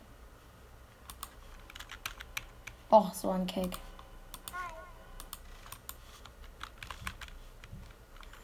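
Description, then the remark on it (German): Rapid, irregular clicking of computer keyboard keys runs through the whole stretch, fairly crisp, while a person briefly speaks over it; the player keeps touching the keyboard while playing a video game in which the keyboard does nothing. “ich auch die ganze Zeit auf die Tastatur klicke, wo man mit der Tastatur in dem Game gar nichts machen kann.”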